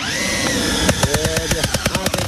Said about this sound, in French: Coup de masse, perceuse.